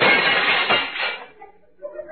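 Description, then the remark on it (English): A person jumps through a window: a loud crash of the window shattering, a dense burst of breaking glass that fades over about a second, followed by a few faint, scattered tinkles of falling shards. “Man, the Undertaker jumped through the window.”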